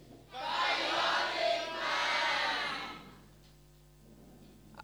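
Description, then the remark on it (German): A crowd shouts "Bionic Man" together in unison after a count of three, a loud, sustained roar of many voices lasting about three seconds in two swelling bursts, then fading to quiet murmur. “Rufen wir den Bionic Man so laut wie ihr könnt. Eins, zwei, drei.”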